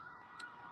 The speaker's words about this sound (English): my sorry about the sirens. They always do that.